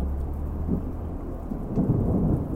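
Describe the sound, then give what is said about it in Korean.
Heavy rain pours steadily outside a window while a deep thunder rumble rolls underneath, swelling louder near the end. No voices, just the dense wash of a storm. “창문 밖에는 비가 세차게 퍼붓고 있었고 번개도 잊을만 하면 한 번씩 내리쳤다.”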